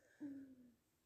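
A single low stomach growl, a brief tonal rumble lasting about half a second before fading. It's quiet, with no talking around it.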